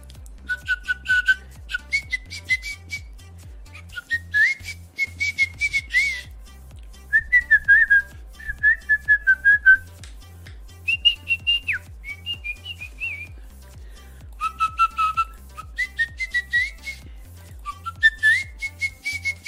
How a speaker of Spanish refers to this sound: llegó a componer canciones sin saber música. O sea, armaba la, la letra y después le ponía tonada o melodía chiflando.